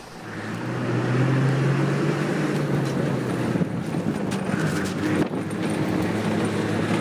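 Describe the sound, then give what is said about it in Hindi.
A bus engine drones steadily, a low rumbling hum mixed with rattling and occasional knocks and jolts as the bus speeds over a bumpy, unpaved village road, with no one talking. “इससे अच्छा तो हम बैलगाड़ी से ही चले जाते मामा गांव की ऊबर खाबड़ कच्ची सड़क पर तेज़ दौड़ती बस कुछ ज़्यादा ही झटके मार रही थी”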